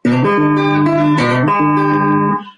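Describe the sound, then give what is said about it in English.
A hollow-body guitar with Zippo pickups, in open G tuning and somewhat out of tune, strummed, a few chords ringing out loud with bright, sustained tones before fading at the end. No voices. “Oh, this is an open G.”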